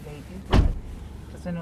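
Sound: getting into a car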